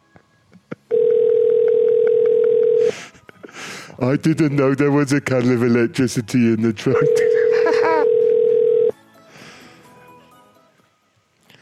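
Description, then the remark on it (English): A steady, mid-pitched telephone tone of an outgoing phone call hums for a couple of seconds, breaks off while a voice speaks over it, then resumes just as loud for another two seconds before cutting out. “No, no I'm calling her.”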